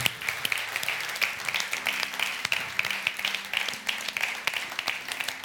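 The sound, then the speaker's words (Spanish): A church audience applauding God after a prayer, a steady wash of many hands clapping with sharp individual claps popping out, sustained and fairly loud throughout, with faint background tones underneath. “Dale un fuerte aplauso a su Dios en este día.”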